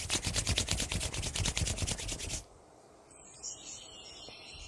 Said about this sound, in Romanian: Cu ochii închiși, freacă-ți palmele încet și simte cum ele se încălzesc.